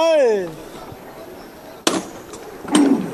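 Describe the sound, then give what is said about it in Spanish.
A voice calls out and trails off, then after a pause come two sharp, loud knocks of the capataz's hammer on the procession float, signalling the men of Villanueva to lift it, about a second apart, the second with a brief ringing tone. “martillo cuerpos arriba va a levantar con fuerza de los hombres de de Villanueva”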